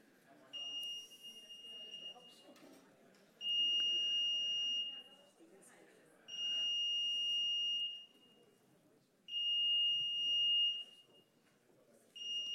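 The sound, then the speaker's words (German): A smoke alarm sounds in repeated long, piercing electronic beeps, each lasting about one to two seconds with short gaps, while people talk underneath. “Ich kann auch lauter reden als das Piepsen.”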